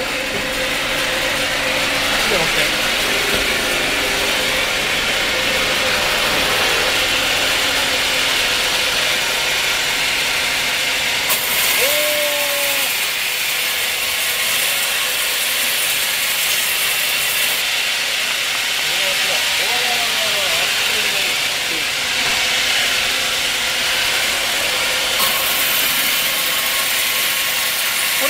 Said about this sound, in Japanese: 製材機見ますはいはいはい製材機さっき言った小割りっていう技術ですねこれは、えーとまあ、大きい丸か、うちの,、まあ、あの機械に入らないものを小さく割ったりとか、ボールペンを作るときに、はいはいはい成形する。